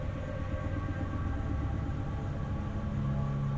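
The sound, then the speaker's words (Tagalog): A heavy bus engine starts and rumbles steadily, a deep droning hum that shifts pitch slightly toward the end as the bus begins moving forward inside a garage. No voices. “Umandar yung makina ng bus at nagsimulang umabante.”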